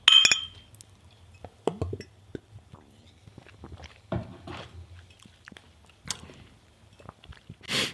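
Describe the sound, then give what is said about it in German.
A single bright clink of glasses in a toast rings out at the start and fades quickly, followed by quiet chewing, small clicks and soft rustling with no speech. “Prost! Ja, Prost.”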